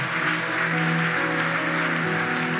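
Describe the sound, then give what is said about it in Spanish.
An audience applauds a girl who has come forward to be prayed for, a dense, continuous wash of clapping that holds at an even loudness throughout, with sustained musical tones humming underneath. “Dale un fuerte aplauso a esta niña.”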